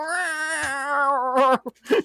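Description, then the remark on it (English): A voice imitates a cat meowing with one long, drawn-out, wavering, ghostly meow, loud, followed by a couple of short, clipped vocal sounds. “When the cat is like in the ether and meowing, it says ghostly”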